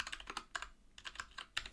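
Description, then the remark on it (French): Rapid, irregular clicking of keys on the small keyboard of an Android device, about nine crisp taps in under two seconds, fairly quiet with no voices. “Ça, c'est quoi C'est un bout de clavier”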